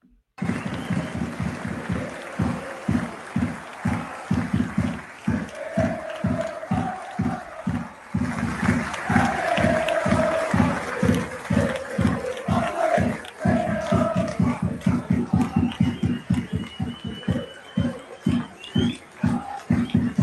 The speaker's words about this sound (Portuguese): A torcida do Celtic no jogo desse final de semana.